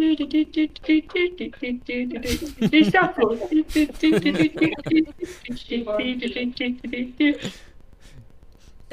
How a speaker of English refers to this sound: she's just humming.